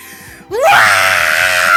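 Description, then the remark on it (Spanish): A loud, sustained human scream, reenacting a prank, bursts in after a brief quieter moment, rising sharply in pitch and holding at full volume for over a second. “teníamos que gritar con toda la fuerza”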